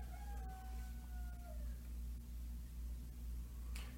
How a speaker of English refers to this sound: You guys might hear my chicken out there.